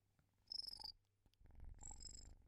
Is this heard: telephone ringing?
no